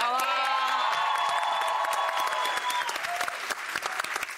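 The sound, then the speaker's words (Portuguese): An audience bursts into steady applause for a woman present who trains girls from the community as players, dense clapping carrying on throughout, with a few raised voices cheering over it at the start before thinning to just the clapping. “Vamos aplaudir que ela tá ali.”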